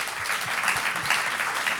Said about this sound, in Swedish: Ja, det är värt en applåd faktiskt.